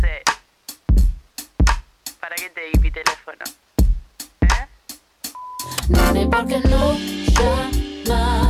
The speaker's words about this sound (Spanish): Tiene un sonido de neo soul increíble y nada, el mejor arranque tiene, la verdad.